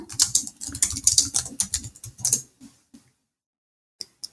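Rapid typing on a computer keyboard as someone quickly tries to pull information from the internet: a dense burst of clicky keystrokes for about three seconds, then a pause and two final isolated key taps. Clear, no voices.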